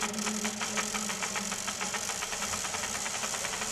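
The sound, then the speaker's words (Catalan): A wooden ratchet rattle cranked steadily, giving a fast, even stream of dry clacking clicks that continues without a break, fairly loud, with no voices. “Durant l'edat mitjana, el so del carrau també tenia un sentit infamant, era l'instrument amb què leprosos i vagabuns sortien a demanar almoina, com es pot veure en algunes miniatures del segle XIV.”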